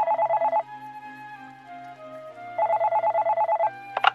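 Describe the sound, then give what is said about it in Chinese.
A telephone rings in two rapid trilling bursts of high, pulsing tones, separated by a quieter stretch of soft sustained music, ending with a couple of sharp clicks. “我正犹豫着，电话铃就响了。”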